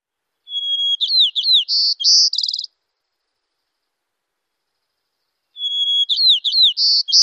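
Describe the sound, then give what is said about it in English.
A white-crowned sparrow sings twice, each song opening with a long clear whistled note that breaks into quick whistles, trills and a buzzy ending, separated by a few seconds of silence. “a long introductory note followed by some whistles and buzzes.”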